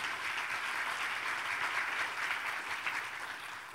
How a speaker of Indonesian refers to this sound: Kita berikan tepuk tangan dulu bagi Tuhan kita Yesus Kristus.